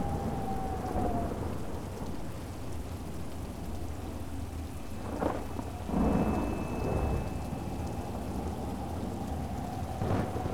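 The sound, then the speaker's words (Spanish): Steady rain of a summer thunderstorm patters down while low thunder rumbles and rolls through the storm, with a few louder cracks and swells standing out over the constant downpour. “Nada es más importante ahora que esta tormenta de verano.”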